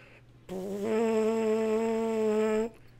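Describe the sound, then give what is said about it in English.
A steady, reedy buzzing tone, made with a finger half covering the hole, holds at one low pitch for about two seconds, rich in overtones, with no talking. “I'm going to put my finger over it, like maybe halfway.”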